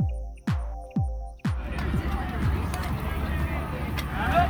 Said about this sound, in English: Next is the sound of hundreds of people clipping in.